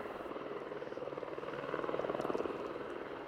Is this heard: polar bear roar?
no